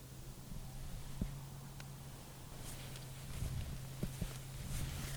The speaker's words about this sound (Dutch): Het is hier zo stil dat je dus het geluid hoort van. Nou, wat je nu hoort is een, eh, is een N-weg. De N362 of zo. Die ligt denk ik 9 kilometer, 10 kilometer hier vandaan. En toch hoor je hem.